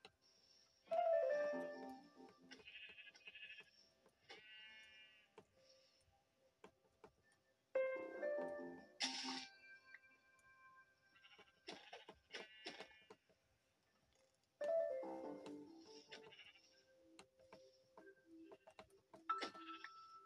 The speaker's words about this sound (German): Yes, hier sind drei Schafe, aber in unterschiedlichen. Wobei, hier sind drei weiße Schafe.